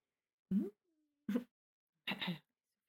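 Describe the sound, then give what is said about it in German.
A tomcat meows three times during a recording, short calls spaced about a second apart, the last one longer and brighter, with quiet gaps between them. “Kater, könnten Sie sich bitte entscheiden?”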